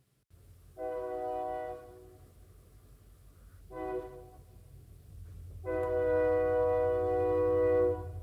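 A train passes by an apartment with a low, steady roar as its horn sounds three times: a long blast, a short one, then a longer final blast as the rumble grows louder.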